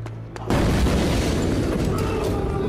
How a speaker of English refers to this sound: I heard the unmistakable popping of gunfire somewhere down below. The lobby, maybe, automatic from the sound of it,